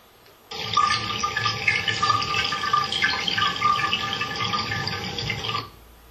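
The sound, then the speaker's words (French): Water runs steadily for about five seconds, a loud, continuous splashing rush like a tap flowing, starting and stopping abruptly with no voices. “Et le support, bah, peut-être de, différentes, de différentes origines, ce sont des supports d'eau qui coule”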